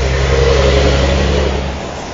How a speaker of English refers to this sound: Let the truck go by.